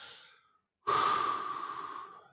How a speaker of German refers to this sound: Jetzt mal laut, das kannst du ja auch leise machen, aber ein bewusstes Ausatmen.